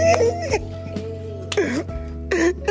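A man crying in a played video, wavering, high-pitched sobbing wails that come in three or four bursts with short pauses between them, heard over a steady low hum.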